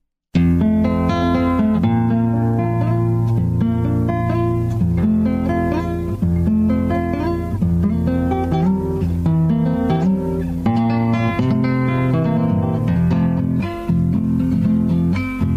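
A recorded folk song plays steadily from start to finish, rich with strummed string chords and a warm melodic line at an even, fairly loud level, with no talking over it.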